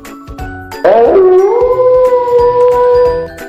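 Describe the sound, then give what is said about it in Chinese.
A wolf, the big bad wolf in a forest, lets out one long, loud howl that swoops up sharply and then holds a steady, slightly wavering tone for a couple of seconds. A few short taps come just before it. “它总是说：“ 我是大野狼，无敌的大野狼。”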